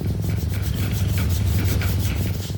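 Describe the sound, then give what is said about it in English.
A cat named Oreo purrs in a steady, low rumble that runs the whole time, with a gentle rhythmic pulsing of breaths in and out and no voices. “I don't know if that's fully backed by science, but I like the thought that Oreo's purring is helping me to have a great start to the day.”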